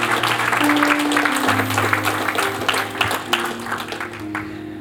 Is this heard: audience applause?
yes